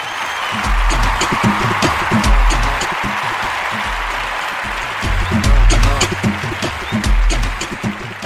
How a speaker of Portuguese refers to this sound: Salvo de palmas para o momento Portugal aqui no programa.